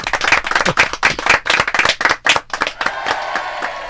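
Audience applause welcoming a musician: a burst of brisk, crisp clapping from many hands that thins out after a few seconds into scattered claps over a low crowd murmur.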